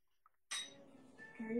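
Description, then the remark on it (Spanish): A sharp clink of a dish rings out after a brief quiet moment, followed by lingering ringing tones and softer handling noises of plates and utensils as food is served onto a plate. “Ahorita voy a servir para que vean qué linda se ve ya emplatada.”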